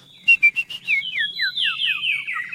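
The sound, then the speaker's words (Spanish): A male chivizcoyo bird sings a bright whistled song: a few sharp opening notes followed by a rapid series of descending, slurred chirps, clear with no talking. “Eh, porque como anda entre las piedras, eh, lo que escuchan ahí es, es, el canto que hace el, macho.”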